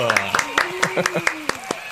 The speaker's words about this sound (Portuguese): Eu sempre pauso pro aplauso.